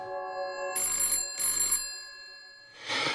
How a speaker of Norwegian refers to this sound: Telefonen ringer. Alt arbeidet fryser.